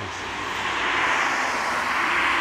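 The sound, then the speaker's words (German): A petrol car drives past at the roadside, past a sensor measuring nitrogen oxides in the air, its broad whooshing engine and tyre noise swelling slightly and holding steady, with no voices. “So, ein Benziner, der macht”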